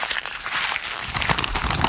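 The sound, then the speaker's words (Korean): Paper being crumpled, a continuous dense crackling and rustling that fills the whole moment, steady in loudness with sharper crinkles toward the end, and no one talking. “이 소리 종이 구기는 소리입니다.”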